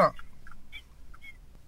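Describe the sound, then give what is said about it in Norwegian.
Seagulls call faintly in the background, a few short, separate squawks spread over a couple of seconds, just after a brief spoken word at the start. “Jeg syns jeg hører noen må måker i bakgrunnen.”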